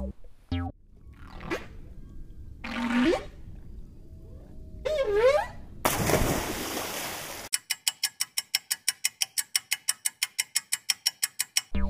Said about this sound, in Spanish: Es una ballena cantando.